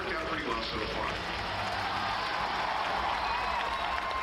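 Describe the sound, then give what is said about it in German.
A large convention crowd in Hall H cheers and applauds wildly during a four-minute film trailer, a dense, continuous roar of clapping and shouting that stays loud and steady throughout. “Die Menschen jubeln wie verrückt.”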